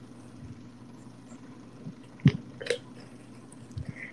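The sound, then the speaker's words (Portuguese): A quiet sip of water: a soft slurp and a wet mouth click or swallow stand out briefly against a low steady background hum, with no talking. “Beber uma água aqui que eu”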